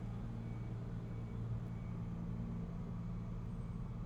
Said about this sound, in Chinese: 哇，好大声哦。外面的车，What is that？